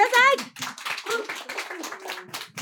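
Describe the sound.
An audience applauds with a dense, irregular patter of many hands clapping at steady moderate loudness, opening briefly over the tail of a speaking voice.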